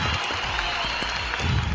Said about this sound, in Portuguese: Palmas, palmas, palmas.